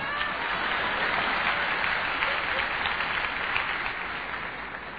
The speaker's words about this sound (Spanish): Aplauso.